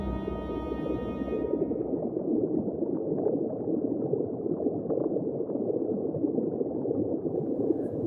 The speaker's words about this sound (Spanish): Los señuelos son falsos blancos que hacen burbujas como un hacerse. Los lanzaban nuestro compañero Alberto González y estaban diseñados para engañar torpedos.